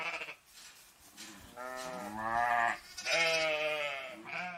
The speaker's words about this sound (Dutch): Maar weet je wie er wel dol op zijn? Dat zijn schapen.